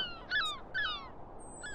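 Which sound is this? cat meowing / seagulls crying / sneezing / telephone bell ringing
seagulls crying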